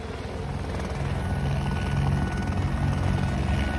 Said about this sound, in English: That screeching noise that you can hear, that's the sound of a chopper.